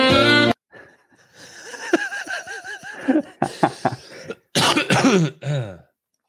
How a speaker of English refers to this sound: I had a sore throat, then mm-hmm. it, then it went away, and I had, I had sinuses, and now I'm mm-hmm. coughing.